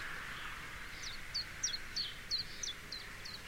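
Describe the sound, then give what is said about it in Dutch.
A chiffchaff sings its steady two-pitched song in spring, about nine sharp notes alternating up and down in an even rhythm over a constant hiss of background noise. “Het geluid van de lente vind ik toch weer chif-chaf fantastisch.”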